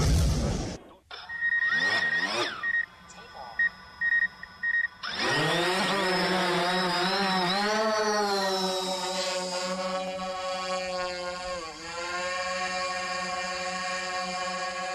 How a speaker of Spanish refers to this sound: Estoy segura que muchos de ustedes ya reconocieron el sonido de este. Por acá me dicen, sí, es un dron.